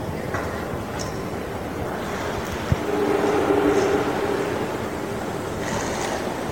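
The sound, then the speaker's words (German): A busy, heritage-protected train station hall with shops rumbles steadily with echoing ambient noise. A single sharp clack cuts through, followed by a faint, whining tone from a train, and no distinct voices stand out. “Ja, ich habe noch ein bisschen Zeit, bis der Zug abfährt und schlendere noch ein wenig durch die Bahnhofshalle mit ihren Geschäften und mit ihrem bunten Treiben.”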